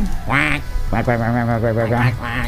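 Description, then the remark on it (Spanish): A person imitates a duck with loud, nasal quacks: one short quack, then a longer drawn-out buzzy quack and a brief final one. “Modo pato.”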